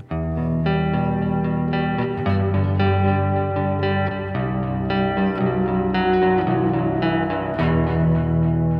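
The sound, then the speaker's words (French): An electric guitar with effects plays a riff of shifting chords over a steady, ringing open sixth string, loud with no talking. “Garde tes deux notes euh, en dessous, mais garde la sixième à vide.”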